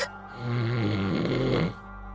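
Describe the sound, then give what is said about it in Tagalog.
A single loud, rumbling snore, a long drawn-out inhale with a harsh, vibrating rattle lasting over a second, from a man sleeping on a wooden cot in a dark house, with no talking. “Walang katao-tao nang bigla akong makarinig ng malakas na hilik.”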